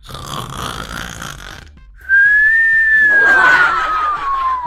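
A rough, raspy snoring inhale is followed by a long, steady high whistle that slowly glides downward in pitch, like a cartoonish snore. There is no talking.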